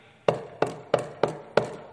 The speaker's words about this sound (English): All of a sudden there's a knock on her door.